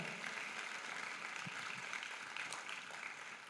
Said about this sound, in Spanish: Démosle un fuerte aplauso al Espíritu Santo, por favor.